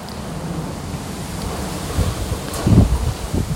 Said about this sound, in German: Das hier, dieses Geräusch, das ihr vielleicht hört, ist der Sturm. Der Sturm auf Kreta. Es hat so 31 Grad heute und stürmt.